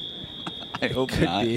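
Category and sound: signal or alarm, alarm beeping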